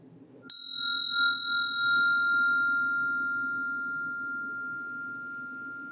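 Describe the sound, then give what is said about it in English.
A single meditation bell is struck once to end a short meditation, its clear tone ringing out and slowly fading over several seconds against a low, steady background hum. “And without more words, we'll practice that just for a short meditation, which I will end with a ring of the bell.”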